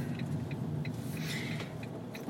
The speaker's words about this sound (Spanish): Que estoy buscando aparcamiento y no, no me cabe el coche, me cabe aquí, sí.